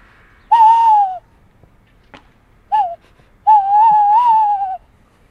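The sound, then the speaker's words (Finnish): A person imitates an agitated tawny owl by blowing between the thumbs of hands cupped in front of the mouth: three hollow whistled hoots, two long wavering ones around a brief sharp one, loud and alone with no talking. “Vihanen lehtopöllö kuulostaa sitten suunnilleen tältä.”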